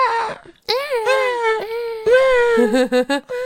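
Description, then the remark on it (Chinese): A baby in a stroller wails loudly inside the Church of St. Francis, long rising and falling high-pitched cries echoing through the church, followed by a quick burst of short, choppy sobs at the end, with no talking. “不是因为有个小朋友在那个好像这个保姆车里面，然后就，”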